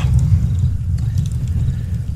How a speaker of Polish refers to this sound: Doszucę troszeczkę do tego ogniska.